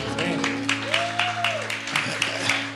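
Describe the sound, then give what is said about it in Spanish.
Thin, weak applause: just a few scattered hand claps at an uneven, unhurried pace, fairly soft, over a steady low hum with a faint voice drifting underneath. “Pero ese aplauso está muy, muy, muy flojito, muy flojito.”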